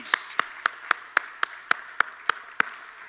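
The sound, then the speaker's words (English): An audience claps hands in praise in a steady, even rhythm, about eleven sharp, crisp claps in quick succession over a low background murmur. “Somebody give him another hand clap of praise”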